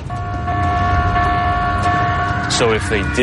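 A ship's battle stations alarm, sounded aboard the ship during a ghost investigation to simulate an attack at sea, plays as a loud, steady electronic tone that holds without a break, and a voice starts speaking over it near the end.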